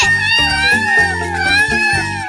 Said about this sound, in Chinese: 另一只彩蛋在发出喵喵叫声的动物旁边，喵喵。 哪个动物的叫声是喵喵？耶，是猫咪！ 看，小猫咪。